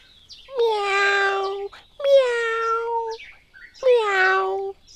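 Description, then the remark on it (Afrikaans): A three-year-old toddler's voice imitates a cat on seeing the cat Kitsie, giving three drawn-out meows in a row with short pauses between them, fairly loud, with no other talking. “Hy maak altyd 'n melgeluid as hy haar sien en die keer is geen uitsondering nie.”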